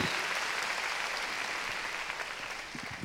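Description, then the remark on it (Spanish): Loud, sustained clapping from many hands, offered as strong applause to the Lord, a dense and steady wash of claps that keeps an even level throughout, with no voices heard over it. “Sentiremosle palmas fuertes a nuestro Señor.”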